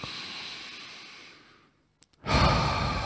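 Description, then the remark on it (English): A deep, airy breath drawn in through the nose toward the belly during a breathing exercise fades out, followed by a short silence with a small click, then another loud, rushing breath begins. “So in through the nose”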